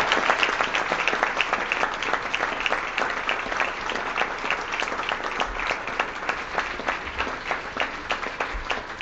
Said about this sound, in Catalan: i voldríem agrair a unes persones que avui han dedicat el dia a fer d'interventors i d'apoderats. Gràcies a ells hem tingut joc net i hem tingut unes eleccions democràtiques. Un aplaudiment per ells, també.